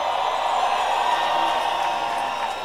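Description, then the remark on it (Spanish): A large outdoor music festival crowd in Bogotá roars steadily, a dense wash of cheering, shouting and applause that holds at a constant loud level for a few seconds without any single voice standing out. “Pero quiero oír ruido, aplausos, gritos, de todo.”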